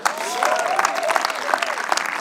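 An audience claps steadily, a dense patter of many hands at moderate loudness, with faint voices and cheers mixed into the applause.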